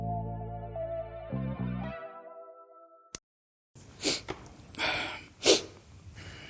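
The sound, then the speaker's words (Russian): A short electronic tone and a click give way to silence, then a few quick, breathy nasal sniffles, fairly loud, with the sharpest one near the end, from a man who slept on a balcony. “Ты что шмыгаешь?”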